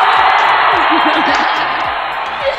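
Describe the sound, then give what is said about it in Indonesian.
A loud, steady wash of audience applause and cheering for a guest star on the show Studio 0 SKS fills the whole stretch, with a few whoops rising out of the dense clapping noise and no pauses. “Yeay, tepuk tangan.”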